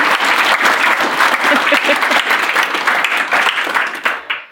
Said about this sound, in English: Big round of applause for Beth Massi.